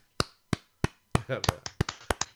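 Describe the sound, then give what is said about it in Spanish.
Slow, sparse hand claps from two people applauding each other, a few evenly spaced at first, then the second clapper joins and the claps overlap unevenly, with brief voiced sounds mixed in. Fairly quiet. “Aplauso triste de dos personas, dándose el uno al otro, que es maravilloso también.”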